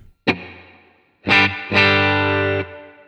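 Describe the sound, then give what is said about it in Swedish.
Electric guitar through the plate setting, bank A, of a reverb pedal: one chord rings out into a smooth, fading tail, then two more chords follow, the last held for about a second. Fairly loud, no voices. “plate låter så här.”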